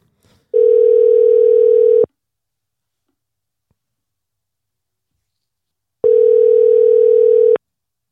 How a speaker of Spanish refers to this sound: No, me, me, sigue, me sigue mandando a voicemail. Suena una vez, dos veces y me manda a voicemail.